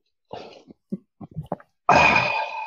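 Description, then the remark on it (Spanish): A few short huffing breaths and snorts, then one loud, sudden sneeze that bursts out harshly and trails on for almost a second. No one speaks. “salud.”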